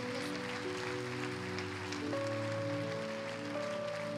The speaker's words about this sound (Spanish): Démosle un aplauso más fuerte al Señor porque Él sigue haciendo su obra en medio de nosotros.